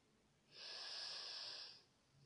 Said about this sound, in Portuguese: Você vai puxar o ar pelo nariz, enchendo no primeiro diafragma, de baixo para cima. Então a sua barriga vai erguer a cada respiração.